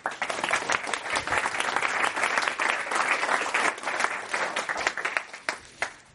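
crowd, audience applause

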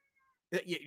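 animal, cat meowing

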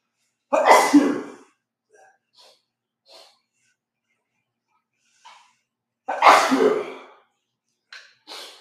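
human body sound, sneeze

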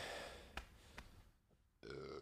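human body sound, burp

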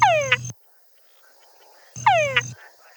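animal, male frog mating call

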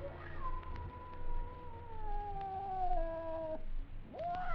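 animal, cat yowling

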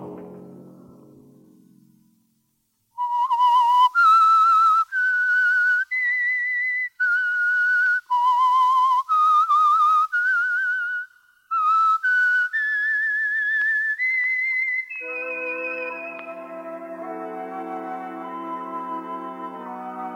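signal or alarm, whistled theme melody

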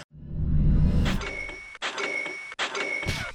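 signal or alarm, shopify sale notification chime

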